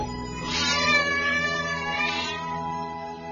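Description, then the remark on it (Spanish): A cat lets out a long, drawn-out yowling meow that swells twice, loud, with no other sounds around it. “Un día, en el monasterio de Nanchuan, los monjes del ala oriental tuvieron una pelea con los del ala occidental por la posesión de un gato.”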